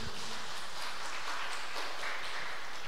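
An audience applauds the Lord, a dense wash of many hands clapping at once for a few seconds with no voices standing out.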